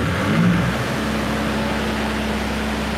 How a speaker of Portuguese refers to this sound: Faltou luz aqui. Esse barulho é do gerador, tá vendo? Faltou luz no prédio.